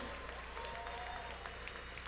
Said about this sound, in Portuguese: Pode aplaudir o Senhor de verdade, gente. Deus é grande.